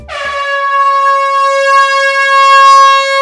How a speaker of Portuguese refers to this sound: pode, só a buzina que esse episódio já está começando.